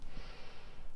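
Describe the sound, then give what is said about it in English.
A long, steady inhale through the nose, fairly loud, with a breathy hiss that holds for about a second and no talking. “It's about breathing in”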